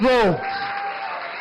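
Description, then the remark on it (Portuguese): A brief shouted voice falls in pitch, then gives way to a steady, dense wash of audience applause that holds at an even, fairly loud level to the end. “Mais aplauso.”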